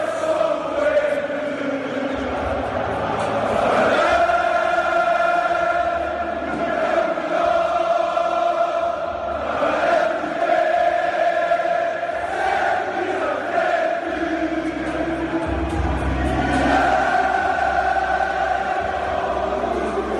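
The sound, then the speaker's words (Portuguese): A large crowd of football supporters, the Lions from Portugal, sings a chant together in a stadium, a loud, continuous swell of many voices holding a melody, with rough roaring noise underneath throughout. “a gente vai ouvir agora O Mundo Sabe, na voz do, dos leões, né? Do, do, dos leões lá de, de Portugal”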